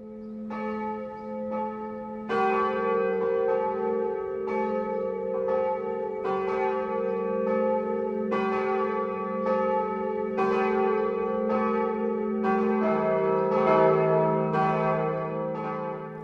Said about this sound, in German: Bayern 1 präsentiert das sonntägliche 12 Uhr läuten. Bayern 1, immer in ihrer Nähe. Es ist 12 Uhr. Das Mittagsläuten kommt heute aus Scherneck im Coburger Land.